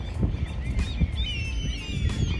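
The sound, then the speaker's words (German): Many seagulls call by the water at an island ferry landing, their thin, wavering cries overlapping in a continuous chorus over a steady low rumble, with no one speaking. “Ja, hier sind noch viele Möwen.”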